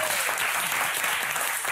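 Steady, dense applause from a crowd fills the whole moment, a continuous wash of many hands clapping at a fairly loud, even level with no talking.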